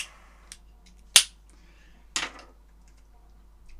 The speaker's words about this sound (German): Was ist ein Feuerzeug? Das hier ist ein Feuerzeug.